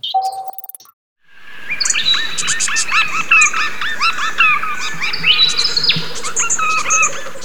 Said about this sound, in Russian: Эту песню поет самец австралийского бородавчатого медососа. Это вымирающий вид, так что эти птицы редко встречают друг друга в природе и просто не знают, какие песни надо петь, и перенимают пение других видов,